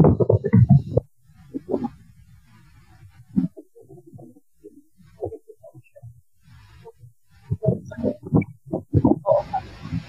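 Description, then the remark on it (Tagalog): An electric fan blows air across a microphone, making irregular low rumbling gusts and thumps that swell and fade, louder at the start and end, with no clear talking. “Electric fan ko, ano kasi blower ang ang, eh, alam niyo ba kung gaano kainit?”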